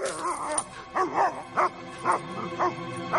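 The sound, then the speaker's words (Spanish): A chained dog barks repeatedly in a steady rhythm, about six sharp barks roughly half a second apart, with a faint whimpering tone between them and no talking; it runs toward a person outside a white two-storey wooden house until its chain stops it. “Una cadena detiene al perro.”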